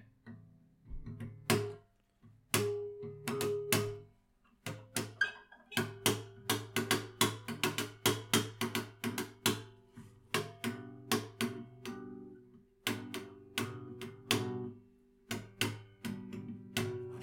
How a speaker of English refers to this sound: So I haven't slapped the guitar in a long time. Um, but yeah, that's one way to do it. You slap it.